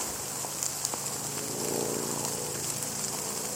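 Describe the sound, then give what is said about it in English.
Steady rain patters down in a dense, even hiss, with scattered sharper drops ticking against a surface throughout, moderately loud, with no voices. “Why am I getting all this rain here?”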